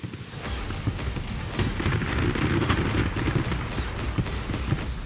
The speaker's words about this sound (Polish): Wtargnięcie na pokład zawsze poprzedzone było salwą z armat